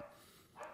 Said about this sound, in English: sorry about the dogs.